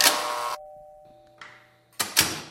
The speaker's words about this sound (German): Es klingelt.